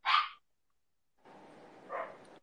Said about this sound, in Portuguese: Aí, se os cachorros estourarem aqui, é normal, tá?